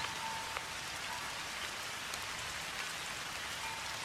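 Steady, even rainfall pattering densely on a hard surface at a small, peaceful temple in Japan, a constant hiss of countless drops with no pauses, no voices and no other sounds.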